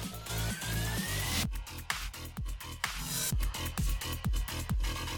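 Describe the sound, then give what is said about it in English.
A steady pattern of sharp hand claps sounds within a loud electronic drum beat, with deep kicks underneath and a rising synth sweep at the start, no voices. “For the clap, use the right shoulder button.”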